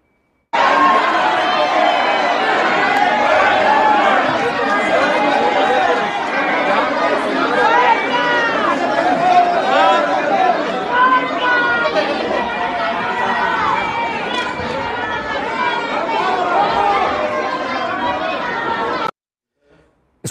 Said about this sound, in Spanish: Escuchaba los eh, gritos de las y los legisladores, no se muevan, porque entonces esta turba eh, cumpliría su propósito, reventar la sesión para que no se diera el nombramiento del eh, gobernador interino.